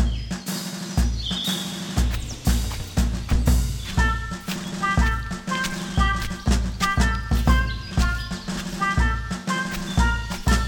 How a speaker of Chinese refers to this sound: 听，这么多嘈杂的脚步声，有一大群的人跟随在耶稣的后面。